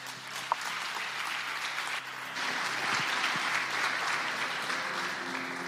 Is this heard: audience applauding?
yes